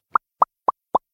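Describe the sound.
Four crisp, hollow pops made by a person popping the lips, evenly spaced in a quick steady rhythm, clear against silence.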